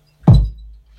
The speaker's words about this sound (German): Und kannst du uns mal deine Trommeln erklären? Ganz unten kommt die Bassdrum. Die klingt so.